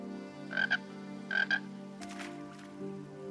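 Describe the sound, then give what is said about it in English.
A frog, Mr. Frog, croaks twice, each call a quick doubled ribbit, clear over a steady low background hum, followed by a short burst of noise. “What's that mean, Mr. Frog? You want to know about the stockade?”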